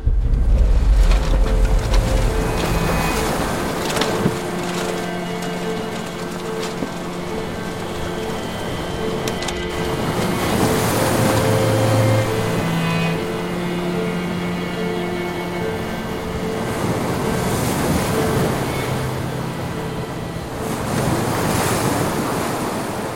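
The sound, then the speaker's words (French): Steady rushing sea waves and gusting wind fill the scene, with surges of surf swelling every few seconds and faint creaks and hums of an army sailboat under way on the Baltic and North Sea. No voices. “ayant le privilège de disposer d'un magnifique voilier de l'armée, Kuklinski obtient de ses supérieurs l'autorisation d'effectuer une mission sur la Baltique et la mer du Nord”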